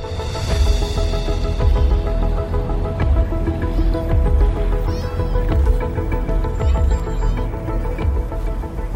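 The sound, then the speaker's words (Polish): A loud, steady musical jingle plays on its own, with a full band sound, a thumping low beat and layered melodic tones running for several seconds without any voices. “Dobra, to jingle, niech te emocje trochę ci opadną.”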